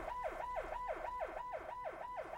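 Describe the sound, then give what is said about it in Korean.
A loud emergency siren cycles rapidly up and down in pitch, repeating its fast yelp-like sweep about every third of a second, continuous with no voices. “아, 사이렌이 키를 쓰고 우는데 우겠어 잠이?”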